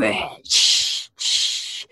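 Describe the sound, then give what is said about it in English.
A voice imitates a pepper spray can being sprayed in two people's faces, with two sharp, loud hissing bursts, each about half a second long and separated by a brief pause. “so I spray them both in face.”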